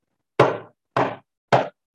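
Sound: knocking on a door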